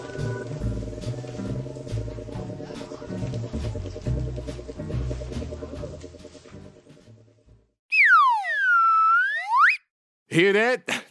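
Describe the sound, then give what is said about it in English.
Upbeat background music fades out, then a loud, handcrafted slide whistle swoops down and back up, followed after a short pause by a quick, wobbling upward slide. “That's the sound of a high quality, handcrafted slide whistler slide whistle from Kazoos and stuff.”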